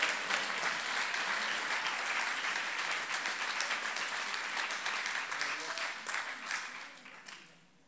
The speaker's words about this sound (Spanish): ¿Cuánto puede dar un fuerte aplauso al Señor? Oye, dile que está a tu lado, una vez más.